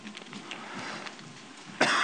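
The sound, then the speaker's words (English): A man coughs while preaching from Ephesians chapter 1, a rough, breathy bout ending in one sharp, louder burst, with no talking. “excuse me, excuse my coughing. I'm trying my hardest not to, but it's not easy.”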